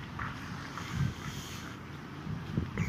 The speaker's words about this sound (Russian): С нами, как всегда, соведущий, это ветер. У нас немножко ветрено, поэтому спасибо за понимание.